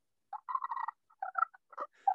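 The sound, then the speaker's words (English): A friction turkey call worked with a sliding motion, scraped in short, rasping bursts, a quick run of squeaky yelps and a higher shrill shriek near the end, fairly quiet with no talking. “Hear that little shriek it's making. Oh, yeah. some, of these, some, of these, old school turkey hunters tell me these old birds will do that.”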